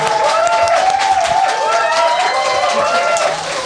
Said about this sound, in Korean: 네, 사람은 줄었는데 박수 소리는 더 커지는 것 같습니다.